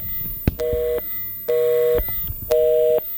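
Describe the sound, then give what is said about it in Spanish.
A telephone busy signal heard while dialing a phone number, the line engaged: three steady, mid-pitched tone bursts of about half a second each, evenly spaced with short gaps, punctuated by sharp clicks, with no one speaking. “Bueno, se han ocupado ahora mismo. Vamos a volver a intentar, intentar otra vez.”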